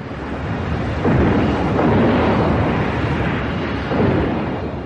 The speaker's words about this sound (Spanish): Tras recibir unos impactos de cargas de profundidad, el submarino se sumergió a 200 metros, donde empezó a llenarse de agua.